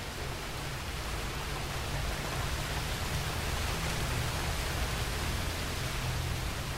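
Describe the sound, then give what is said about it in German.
A steady, dense wash of heavy downpour falls without pause, an even hiss of countless drops pattering on leaves and the forest floor. No voices are heard. “Dann beginnt er wie ein tausendjähriger Regen und tausend Regentropfen prasseln auf Blätter und den Waldboden.”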